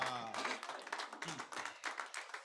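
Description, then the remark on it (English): A church audience claps for the Lord Jesus in a dense, sustained burst of applause, many hands overlapping into a steady patter, with a voice calling out faintly at the start. “Clap for the Lord Jesus.”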